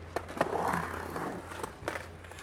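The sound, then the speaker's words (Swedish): At a skatepark, a skateboarder sets the board on the ramp's edge and drops in with a sharp clack of the tail, then rolls down the ramp with a steady rumbling whir and a few more clatters from the wheels and deck. “Från, alltså dropp är när man hoppar ner från rampen ställer brädan på kanten och åker ner.”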